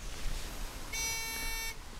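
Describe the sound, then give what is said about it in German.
A water probe lowered on a line gives a single steady electronic beep, bright and buzzy, signalling that it has entered the water, lasting under a second over a low background rumble, with no talking. “Also das Piepsgeräusch sagt, dass wir im Wasser sind mit der Sonde.”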